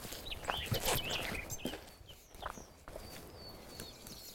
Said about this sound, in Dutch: Ja, het is echt heel mooi. De nachtegaal.